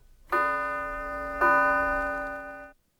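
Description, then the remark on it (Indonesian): A clock bell strikes two o'clock, chiming twice, two resonant strikes about a second apart, each ringing out with a long, slowly fading tone before stopping abruptly; the number of strikes shows the hour. “Oh ya, bunyi lonceng yang saudara dengar adalah bunyi jam kami di sini.”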